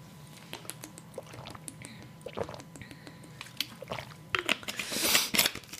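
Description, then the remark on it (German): Crunchy biting and chewing of a cookie, irregular crisp cracks and mouth noises building toward a louder burst of crunching near the end, with no talking. “Und ja, mal Cookie. Prost.”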